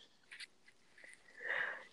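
A soft, breathy yawn: a few quiet intakes of air, then a longer, swelling airy exhale toward the end. No one speaks.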